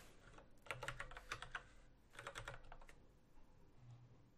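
Rapid keyboard typing in two bursts of quick clicking keystrokes, close and fairly quiet, with a short pause between and no voices.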